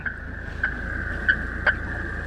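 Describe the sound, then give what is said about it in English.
A radio telemetry receiver on a boat, with a microphone trailed in the Mississippi River, pings for a tagged lake sturgeon: a steady electronic tone with several short, sharper beeps at irregular intervals over a low hiss of background noise. No one speaks. “A receiver pings when a tagged sturgeon is nearby.”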